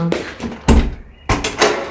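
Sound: door being opened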